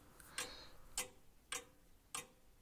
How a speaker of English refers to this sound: You can hear much louder the grandfather clock.